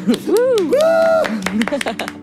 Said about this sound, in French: mesdames et messieurs, applaudissez-la bien fort